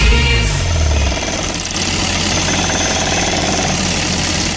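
A jackhammer pounds away at a construction site in rapid, continuous bursts, loud, with a low engine rumble underneath and no one speaking.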